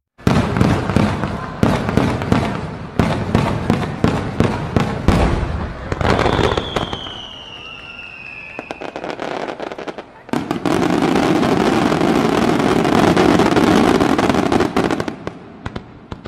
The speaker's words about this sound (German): schneidest du hier bitte noch äh, Böller rein? Nach, nach deiner Ansage, dass man, dass man die Folge abspielt.